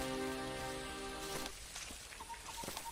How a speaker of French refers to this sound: La pluie tombe drue et vous devez souhaiter vous dépouiller de vos tuniques mouillées.